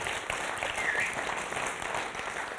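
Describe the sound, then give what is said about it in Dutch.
Sustained audience applause for a church's core team in Leiden, a dense, steady wash of many hands clapping at once, fairly loud and even throughout with no voices standing out. “Laten we het core team ook een ongelooflijk applaus geven hier in Leiden.”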